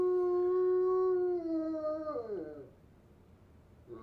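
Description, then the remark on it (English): A bloodhound lazing in a chair lets out one long, loud howl that holds steady, then wavers and slides downward as it fades out, leaving near silence with a faint stir at the end. “I have a third video of a bloodhound howling, like a like a legit howl”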